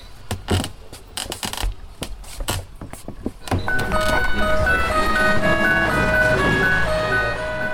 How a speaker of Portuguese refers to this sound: Na Porto de Magia, as caixinhas de música ganham vida. Dá-se à corda e começam as melodias. pequenas bailarinas dançam ao som dos ritmos clássicos.